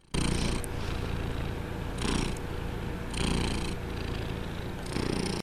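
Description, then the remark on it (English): A male emotional support cat purrs steadily, a low continuous rumble with rhythmic breathy swells roughly every second and a half as it inhales and exhales, with no talking. “he is really an emotional support cat.”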